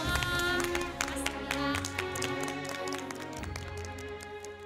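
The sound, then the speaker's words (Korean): Audience applause thanking Professor Kim Jun-hong for his lecture on the TV show Chainaneun Class, a steady dense patter of many hands clapping at a fairly loud level, with sustained music playing beneath it and no talking. “네, 오늘 좋은 강연 들려주신 김준홍 교수님께 다시 한번 감사의 박수 보내드립니다.”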